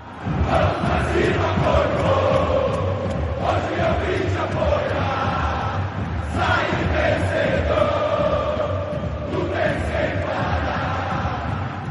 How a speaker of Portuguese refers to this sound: essa aqui é a versão que a torcida argentina cantou na Copa do Catar. Torcidas brasileiras, como a do Palmeiras, também têm cantado versões dessa música durante os jogos.